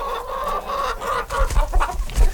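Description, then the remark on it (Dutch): About four or five chickens cluck in a busy, overlapping chorus from a simple coop of wood and chicken wire inside a caravan at a campsite, heard from outside, with sharper bursts of clucking toward the end. The sound is continuous, with no talking. “Van buiten kon je dan de kippen wel horen.”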